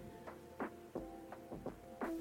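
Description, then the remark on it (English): A steady electrical hum with static interference breaking through in short, irregular crackling bursts, about half a dozen in two seconds, fairly quiet and with no voices. “Oh, jeez, I'm getting static.”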